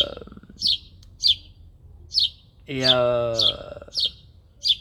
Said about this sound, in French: Il m'a cassé les couilles cet oiseau là, putain.